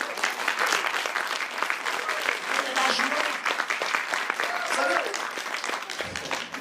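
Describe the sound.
An audience applauds steadily for several seconds after a countdown, to begin worship together: a dense, sustained patter of many hands clapping at once, with a few voices calling out faintly beneath the applause.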